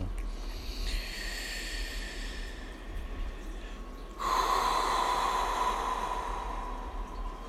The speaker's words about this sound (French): Encore trois grandes belles respirations. On prend son temps, on n'est pas pressé de les vivre, ces trois respirations.